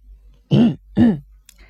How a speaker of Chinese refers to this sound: 终于，金田一耕助清了清嗓子，说了一句话。